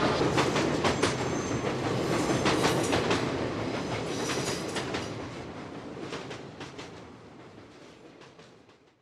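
A moving passenger train rumbles steadily, its wheels clacking over rail joints in loose repeated bursts. The sound is loud at first, then gradually fades. No one speaks.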